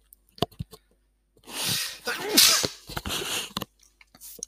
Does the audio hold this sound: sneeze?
yes